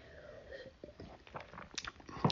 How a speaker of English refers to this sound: As I sip on a glass of wine.